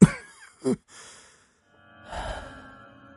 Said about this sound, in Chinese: 那老人咳了很久，这才回答老妇人的问题。